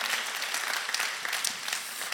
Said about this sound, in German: Und hey, können wir den Leuten auch noch mal kurz einen Applaus geben?